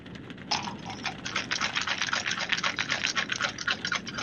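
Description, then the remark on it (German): A dense, continuous clatter of many small dice rolling and knocking together, fairly loud, starting after a brief pause and rattling on without letup. “Das hört sich nach vielen Würfeln an.”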